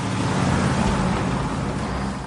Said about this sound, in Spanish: En la lavandería, un camión llega.